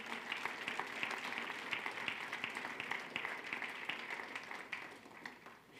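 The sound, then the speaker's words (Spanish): An audience claps steadily for the Lord, many hands producing a dense, continuous patter of applause that holds at an even level, with faint voices mixed in. “Puedes dar un fuerte aplauso al Señor en esta hora que nos libra, que nos guarda del mal.”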